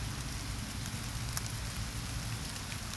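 Steady rain patters on a surface, a dense wash of soft drops with a low rumble beneath, continuous, with no voices.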